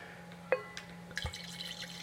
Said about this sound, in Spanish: para eso me voy a servir un poco más de vino porque sepan ustedes que estamos tomando vino